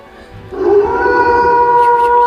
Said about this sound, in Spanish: A ver, eh, méteme un aullido, Paquito Catacumba, que no me oyes.